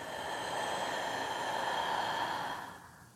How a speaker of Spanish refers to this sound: Inhalando profundo por tu nariz. Contienes la respiración y por la boca lento exhalas y sueltas.